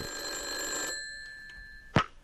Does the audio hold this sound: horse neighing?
no